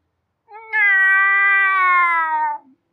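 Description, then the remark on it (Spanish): A single long, drawn-out meow, imitated by a human voice: steady and nasal, held for about two seconds before trailing off, loud with nothing else around it. “¿Quién coño se trajo un gato para acá?”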